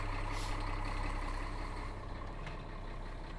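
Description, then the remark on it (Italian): The diesel engine of a snowcat of about 500 horsepower idles steadily after being started, a deep continuous rumble with a faint hiss of air now and then, no voices present. “Il gatto si è acceso, la cavalleria è in moto. Qual è la potenza di questo animale? Circa 500 cavalli, qualcosina in più.”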